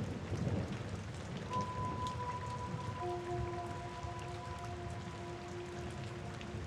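Steady rain pours down with a low rumble of thunder early on, while faint, sustained eerie tones drift in underneath the downpour.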